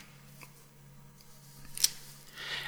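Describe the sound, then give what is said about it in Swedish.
A single sharp click of a telephone receiver being hung up stands out against a quiet, humming background, preceded by a few faint ticks and followed by soft hiss. “försökte jag igen, men utan något hopp total tystnad och sedan ett omisskännligt och mycket karaktäristiskt klick. Någon hade lagt på luren.”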